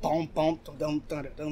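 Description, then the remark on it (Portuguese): A single voice mimics a musical beat, singing four punchy, rhythmic nonsense syllables in quick succession, clear and moderately loud with no other sounds. “vou fazer um beat no …”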